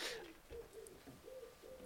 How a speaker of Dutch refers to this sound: Duiven ook. Ja, ja, ja. Het is hier, eh, hier dat is hier een hele beestenpool eh, ah, rond het huis.